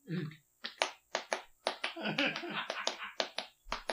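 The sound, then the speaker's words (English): Hollow coconut-shell clops imitating ridden horses knock out a quick, uneven trotting rhythm, about a dozen sharp hits, with brief voices mixed in at the start and midway. “you guys actually almost had a chance to buy a set of co- coconuts that literally made that noise.”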